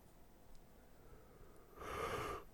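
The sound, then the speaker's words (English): A single short, breathy yawn, with a faint voiced tone in the exhale, rising out of near silence and fading near the end. It is fairly soft and heard alone, with no talking. “another yawn.”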